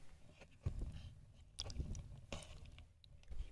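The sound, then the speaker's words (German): Wet, squishy squelching and soft crackles as a hand moves through a pot of billions of tiny gel beads, in irregular bursts, recorded on a phone, with no talking. “Aus so winzigen Kugeln einfach so Milliarden von machen. Ist halt schon cool. Ich meine, ich kann jetzt mit der Hand so reingehen.”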